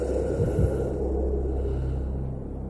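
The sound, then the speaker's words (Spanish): Heavy, labored breathing of a man, with a few harsher rasping breaths early on over a steady low rumble; no one speaks. “Puede escuchar el ritmo de sus latidos y el esfuerzo de su respiración.”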